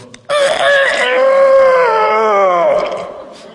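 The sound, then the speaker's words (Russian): A human voice imitates a rooster's crow: one long, hoarse, strained call lasting a few seconds, loud, sagging wearily in pitch toward the end. “Если он с гулянки, петух был с гулянки, там он, то он”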